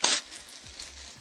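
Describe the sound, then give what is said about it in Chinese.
Toilet paper pulled and torn from a roll in a toilet, starting with one loud, hissing rip of paper and trailing off into softer, scratchy rustling and a few faint low thumps. “这是抽抽卫生纸的声音”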